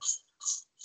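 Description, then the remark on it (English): Three quick, hissy sneezes from a cat in steady succession, each a short sharp burst of breathy noise, fairly soft, with no talking. “that's my cat sneezing you hear that”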